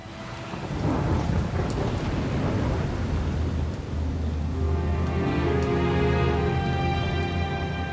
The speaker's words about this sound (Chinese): 在那恐怖的雷雨之夜，维克多撇下自己创造的怪物，仓皇逃出实验室后，在大雨中慌乱地奔跑，脑中一片混乱，什么也无法思考。